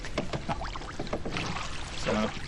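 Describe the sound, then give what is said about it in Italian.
Oars dip and splash in water with a steady rowing rhythm as a boat glides along, rowed Venetian-style (voga alla veneta) in Venice; brief watery swishes and drips recur over a continuous wash of ambient noise. “Peccato che non si senta la mia eleganza mentre vogo.”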